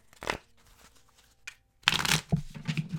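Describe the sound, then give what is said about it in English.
A deck of tarot cards being shuffled: a quick riffle, a brief pause with a light tap, then a longer burst of crisp papery flutter and slapping as the cards are worked together. “Last shuffle.”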